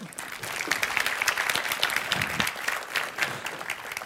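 An audience applauds steadily as a speaker is introduced at a Christian gathering, a dense wash of many hands clapping at a fairly even level for several seconds, with no voices standing out.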